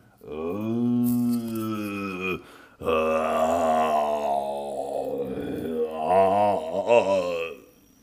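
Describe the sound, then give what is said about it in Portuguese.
A voice imitates a low, groaning murmur coming from the passage right ahead of the end of a staircase: a steady two-second moan, a short break, then a longer wavering, drawn-out groan that rises and falls in pitch, fairly loud and wordless. “A passagem exatamente à frente do final da escadaria, vocês ouvem um murmúrio do tipo.”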